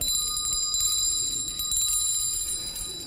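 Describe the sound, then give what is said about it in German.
A doorbell at a parish hall rings in one long, steady, shrill peal that lasts the whole moment without a break. It is fairly loud, with no voices. “In dem Moment klingelt es draußen schon wieder.”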